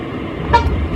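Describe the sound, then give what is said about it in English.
A short car horn beep sounds once over a steady rumble of engine and road noise, a brief bright honk lasting under half a second. “Sure, I thought I, I beeped.”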